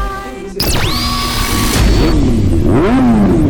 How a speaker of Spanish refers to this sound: Sonidos de motores a la máxima potencia para pegar la vuelta.